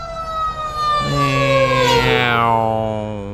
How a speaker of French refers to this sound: en passant, en ce moment, je suis dans le trafic. Je pense qu'il y a un accident parce que là, on entend un camion de pompiers qui passe.